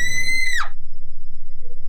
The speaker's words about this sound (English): You ought to heard that thing. It sounded like a woman screaming bloody murder.